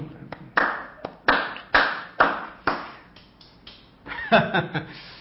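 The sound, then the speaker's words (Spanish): Hands clap in a steady rhythm, about five loud, sharp claps evenly spaced, followed by softer, quicker claps mixed with a brief burst of voice toward the end. “Otro día tocaremos, en vez de la flauta, pues tocaremos las palmas, pero habrá que ejercitarse para hacer la práctica”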